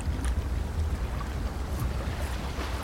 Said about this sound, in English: Small waves lapped up against the side of the ship as the crew was beginning to awaken to a rising sun.